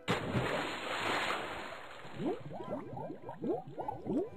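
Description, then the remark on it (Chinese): A burst of water as a rabbit falls into a river while crossing a stream, followed by a run of quick bubbling, gurgling blips rising in pitch as the water settles. No voices. “趟过小溪的时候，小灰没有拉住过河的绳子，就扑通一声，掉到河里去啦。”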